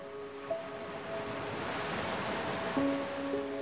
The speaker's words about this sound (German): Ein klares Türkisblau, wie das Meer an einem tropischen Strand. Ein sanftes, helles Beige, wie der weiche Sandstrand, auf den die türkisblauen Wellen schwappen.